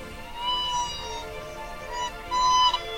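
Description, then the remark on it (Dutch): Roya, a female Siberian white crane, bred in Belgium and seven years old, shakes her feathers, raises her bill and gives her high, fluting call in two drawn-out bursts. The call is clear, with no voices over it. “Daar staat Roya, een iets kleinere Siberische witte kraanvogel ze schudt met haar veren, haar snavel gaat omhoog en ze laat haar lokroep horen.”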